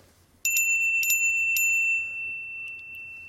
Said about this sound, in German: Dann gibt es noch die äh, App Christmas oder Xmas geschrieben, äh, Xmas Bell. So, und äh, wenn die Kinder auf Weihnachten warten und äh, warten auf Bescherung und äh, man hat keine Glocke zur Hand, dann braucht man natürlich so eine sinnige App.